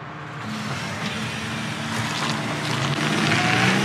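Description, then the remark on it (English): A car engine drones steadily, its rumble growing slightly louder as the vehicle drives toward a person, with no voices. “You're gonna hit me with your car?”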